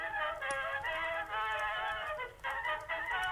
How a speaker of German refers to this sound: Das ist mein Grammophon. Ja, das, was nicht geht, was kaputt ist. Und nach unten geht es noch viel lauter. Macht ein Heidenspektakel, das Ding.